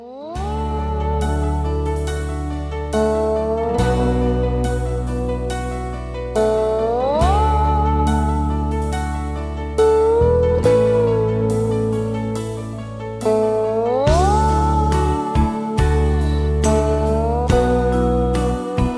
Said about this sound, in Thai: และก่อนที่จะรับฟังช่วงแรกของรายการ ขอมอบเพลงแห่งท้องทะเล แทนความคิดถึงกันก่อนครับ